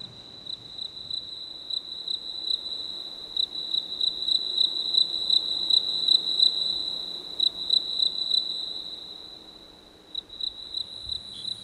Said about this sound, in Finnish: Taas kuuluu tämmöinen sirkkujen siritys. Ollaan, on yö. Ollaan jossain Rio Granden lähellä.